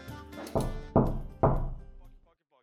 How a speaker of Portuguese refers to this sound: Ó, nesse momento vocês escutam uma batida na porta.